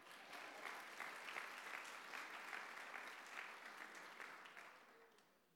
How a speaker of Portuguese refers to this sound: É um aplaudir, eu vou ficar feliz. Aplaudei para Jesus, vai.